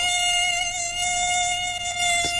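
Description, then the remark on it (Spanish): A mosquito's thin, high-pitched whine drones steadily, holding a constant tone for a couple of seconds with no one speaking. “Es el sonido del mosquito, el terror del sueño”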